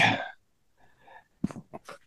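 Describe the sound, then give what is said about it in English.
A dog barks excitedly: one harsh bark, a short pause with faint whining, then a quick burst of several sharp barks, moderately loud with no talking. “I said my dog is going crazy.”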